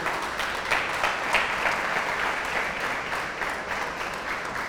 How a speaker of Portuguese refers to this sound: Dá um aplauso ao Senhor aí.